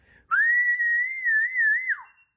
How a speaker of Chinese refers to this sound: 我吹一哨，你看，我一吹哨，我一吹哨，你看莱特有点不耐烦了。你他妈吹什么哨呢？你吹哨，比特一来，他妈我就吃不成了。